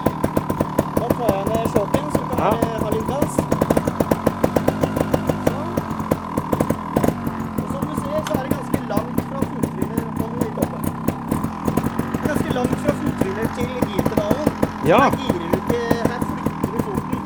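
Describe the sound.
A trial motorcycle engine runs for the whole stretch, a steady buzzing putter with slight revs rising and falling, while a man talks over it, instructing a rider who wears a dead-man's switch magnet on the left arm that stops the bike when the rider leaves it.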